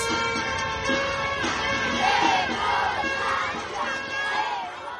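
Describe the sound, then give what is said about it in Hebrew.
A large crowd of protesters against the judicial overhaul shouts and chants together outdoors, a dense continuous roar of many voices with rising and falling cries and whistles, sustained loudly throughout. “ההפגנות נגד המהפכה המשפטית נמשכות בכל הכוח”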